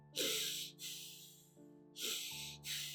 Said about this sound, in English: Let us take nose as an example. So, when I am doing what is called as breathing,